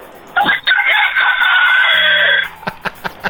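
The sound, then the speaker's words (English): A person loudly imitates a rooster's crow, a single long, strained cock-a-doodle-doo held for about two seconds, followed by a few short breathy sounds. “Uh, I know you guys are asking for it, so here's my impression of the rooster.”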